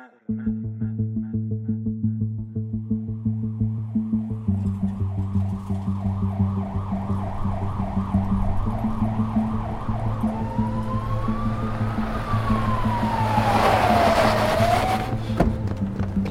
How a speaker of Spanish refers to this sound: me subieron a una camilla, la ambulancia se puso en marcha y bueno, a partir de ahí la verdad es que ya no recuerdo nada.